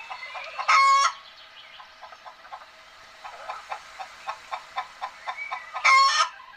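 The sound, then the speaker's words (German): Chickens kept and fed by children at a kindergarten cluck in a steady run of short, repeated calls, broken by two loud, harsh squawks near the start and end. Clear, with no voices. “Füttern mussten die Kinder ihre Hühner aber selbst.”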